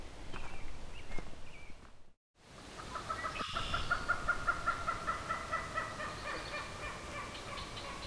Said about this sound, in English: so we got a common gallinule. Very loud marsh bird. A very, very loud marsh bird. Not something I've really encountered much before.